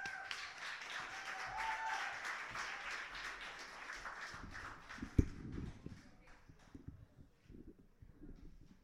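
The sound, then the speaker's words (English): A crowd applauds the next poet up with dense, steady clapping that fades after about five seconds, leaving a few scattered claps, a sharp thump and some shuffling. A voice is faintly audible underneath. “All right, let's get that applause going for our next poet up,”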